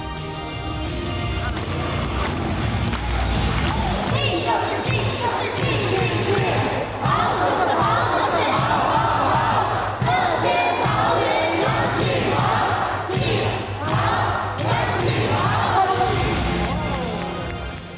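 A baseball crowd chants the cheer for player Yang Chien-hao (杨建豪), in the version led by the Rakuten Girls cheerleaders in the final inning of a 2022 game. Steady rhythmic drum beats and clapping drive the chant, and the loud, dense crowd voices continue throughout without a break.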